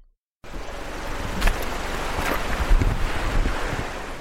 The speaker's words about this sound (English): So decide to take advantage of our four wheel drive and make our way down through the trees until it reveals the Tairua River, snaking its way through the forest over a bed of rocks, made smooth over millions of years.